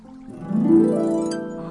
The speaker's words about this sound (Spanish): Oh, oh my God. Ah, me encantó. esa música zen, chorrito de agua.